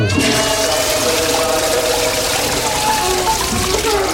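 A toilet flushes loudly, a steady rushing gurgle of water that fills the whole few seconds with swirling, hissing noise.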